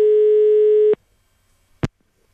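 A single steady telephone ringback tone sounds for about a second on an outgoing call to a staff member at a Klockmäster watch shop in Kungälv, then stops, followed by a short sharp click in the quiet. No one speaks.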